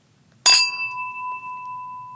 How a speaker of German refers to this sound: Wow, was für ein schöner Klang, obwohl es ganz die billigen Kantinengläser sind. Siehst du? Geht alles. In jedem Schrottglas hm. steckt auch ein Champagnerglas.